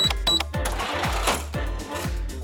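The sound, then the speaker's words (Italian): A mechanical cash register clatters away, a bright bell-like ding at the start, then steady rhythmic clunks of the crank and drawer, loud, with no voices. “E poi ancora, vediamo, c'è il registratore di cassa, inventato da James Ritty”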